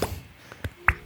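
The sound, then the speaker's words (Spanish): A bottle cork pops out with one sharp, hollow plop near the end, preceded by a couple of soft clicks and scrapes as the bottle is handled. There is no talking. “Voy a destapar una botella para celebrar.”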